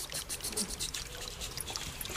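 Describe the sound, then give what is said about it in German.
Meltwater dripping steadily from thawing icicles on tree branches on Mount Asso on the first day of spring, with knee-deep snow and sunshine: a dense patter of small drops falling, with a soft trickling wash underneath and no voices. “die ganze Zeit dieser Klang der Wassertropfen.”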